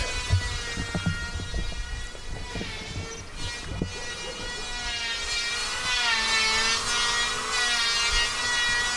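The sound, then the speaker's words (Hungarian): Circular saws whine steadily as they cut through wood, a loud, sustained high-pitched drone with shifting pitch, accompanied by low rumbling machinery and occasional knocks, with no voices. “Addig hallgassátok a cirkulákat!”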